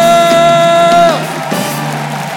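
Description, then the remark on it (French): A loud crowd at a comedy show cheers as the next comedian is introduced, with one sustained high whoop ringing out over the din for about a second before it breaks off, then the steady roar of applause continues. “Faites du bruit pour Jason Broker”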